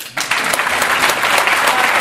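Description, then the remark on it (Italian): An audience bursts into steady applause, a dense, bright wash of many hands clapping that starts abruptly after a brief quiet moment and holds at a loud, even level. “Mi fate un applauso a tutte le persone che si incazzano tantissimo quando pensano di aver trovato un parcheggio e invece c'è una smart.”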